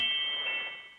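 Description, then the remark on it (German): A phone notification tone sounds once, a bright, steady electronic chime with clear pure tones that hold for about a second before fading slightly, heard alone without any talking. “Das war Benachrichtigungston vom Handy.”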